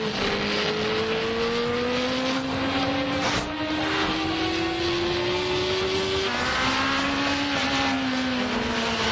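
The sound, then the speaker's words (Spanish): Motorcycle engines roar loudly as two motorcycles ride side by side on a highway crossing the desert, two overlapping engine tones droning together with slowly rising pitch, sustained throughout with a steady rush of wind and road noise. “Se empareja con uno y circulan en paralelo.”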